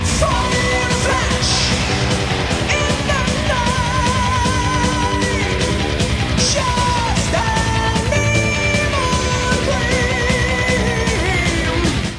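A loud rock song plays continuously, with a high male voice singing sustained, wavering notes over dense, driving guitars and drums for the whole stretch.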